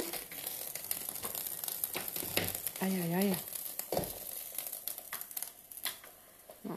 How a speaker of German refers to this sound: Moment, der Mais kocht über. Kurze Pause.